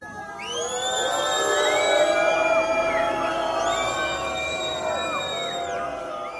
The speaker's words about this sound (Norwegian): Buing og sinte tilrop var det som møtte vinneren av den internasjonale Ibsenprisen i går. Kring 50 demonstranter var samla utenfor Nationaltheatret i Oslo for å protestere mot tildeling av prisen til den austeriske dramatikeren Peter Handke.